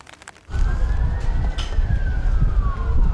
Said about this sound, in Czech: Sirény vozidel záchranné služby. Před Filozofickou fakultou se ozývaly od čtvrtečního odpoledne v podstatě nepřetržitě až do noci.